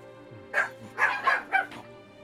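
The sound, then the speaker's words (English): Several small corgis bark in a quick, overlapping flurry of about five sharp yaps in the background with no one talking. “Turned into a bunch of angry corgis.”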